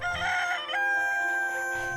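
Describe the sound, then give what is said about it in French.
A rooster crows loudly, one long sustained cock-a-doodle-doo with a strained, wavering pitch that holds for about two seconds with no other sounds around it. “Dans nos campagnes, le coq est un réveil matin.”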